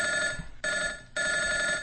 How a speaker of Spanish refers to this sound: Ahorita, ahorita les contestamos el teléfono porque ya se tramó.